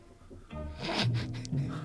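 Soft scratching of pens moving across paper as people write down answers to a quiz question, a few short bursts of scribbling, with a faint low voice murmuring in the background.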